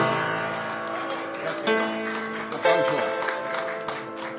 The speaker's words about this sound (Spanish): Vamos a darle otro aplauso, otro aplauso, y al maestro también, por favor.